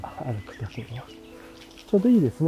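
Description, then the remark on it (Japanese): Faint wild bird calls chirp in the background outdoors while a man talks as he walks, the soft tweets coming in brief scattered bursts beneath his voice. “大法鉄橋が聞こえたりし、ならグリの声、グリっぽい鳥の声というか。”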